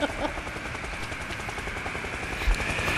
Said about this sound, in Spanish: Los supervivientes miran al cielo esperando el rescate. Un helicóptero amarillo aparece tras una montaña.